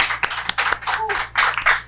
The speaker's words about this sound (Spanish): TikTok, mi cuenta de TikTok ya llegó a los 10.000 seguidores. Aplauso.